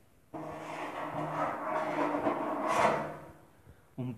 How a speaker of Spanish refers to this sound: Sus palabras fueron interrumpidas por un fuerte chirrido que parecía provenir de los ruidos interiores del edificio.